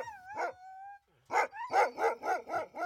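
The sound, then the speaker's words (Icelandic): A team of twenty Siberian sled dogs harnessed to a sled howl with a drawn-out, wavering cry, then break into a quick, steady run of loud barks, about seven in a row, with no voices present. “Tuttugu hundar og aðeins þeir allra bestu og reyndustu komið til greina fyrir slíkt ferðalag.”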